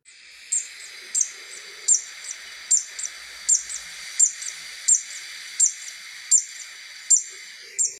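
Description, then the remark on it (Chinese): A Zitting cisticola, a small reed-dwelling bird about 10 cm long, repeats a sharp, high-pitched call at a steady pace, about a dozen brief "zit" notes roughly two-thirds of a second apart over a faint insect-like hiss, with no talking. “它的叫声是这样的。”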